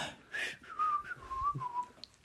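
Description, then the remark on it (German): A person whistles a short, wandering tune, the pure tone gliding up and down in a few connected phrases over about two seconds, moderately loud with no talking. “So dieses, na, na, na, na, na irgendwie so eine Melodie pfeifen”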